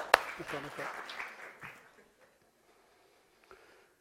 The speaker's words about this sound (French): Merci, on l'applaudit très fort.